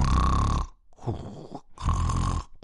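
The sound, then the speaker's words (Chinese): A big dog snores loudly in a slow rhythm: two harsh, rumbling snorts with a softer, breathy wheeze between them. No talking. “大狗正在打瞌睡。”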